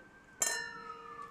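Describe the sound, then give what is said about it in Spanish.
Two wine glasses clink together once in a toast, a bright ringing chime with a clear decaying tone that lingers for about a second. No one speaks. “Antes que nada, vayan por su juguito de uva fermentado.”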